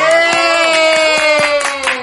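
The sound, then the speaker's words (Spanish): A short burst of applause welcoming a guest friend on her first appearance, scattered sharp claps rising over a steady, humming tonal bed, fairly loud and continuous for about two seconds with no talking. “Pero que además tenemos que aplaudirla a su primera vez en podcast podcast.”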